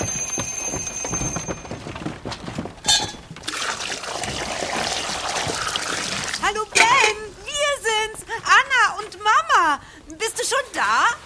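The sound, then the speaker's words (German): A short electronic beeping gives way to a steady, rushing gush of hot pasta water being poured off into a sink for several seconds, followed by animated voices talking. “Boah, die Nudeln sind fertig. Oh, schnell abgießen.”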